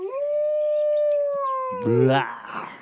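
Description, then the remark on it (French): A single long wolf howl rises, holds a clear steady pitch, and slowly sags for nearly two seconds. It then gives way to a brief, rougher burst that sounds like a voice. “Bernard, le râleur, voit le loup approcher d'un air fier et crâneur.”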